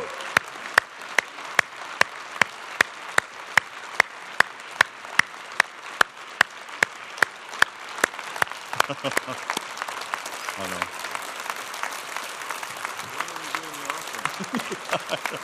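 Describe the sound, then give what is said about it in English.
A crowd applauds the choir and orchestra, clapping in steady, loud unison beats for several seconds, then the rhythm dissolves into a dense wash of scattered applause with a few voices mixed in. “Can we give the choir, the orchestra, just another round of applause and thank them?”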